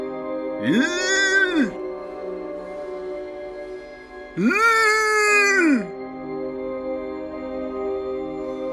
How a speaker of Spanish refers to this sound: No consigo hablar. Lo intento con más fuerza, pero solo salen ruiditos de mi garganta, y ni siquiera sé si son audibles en el mundo vigil.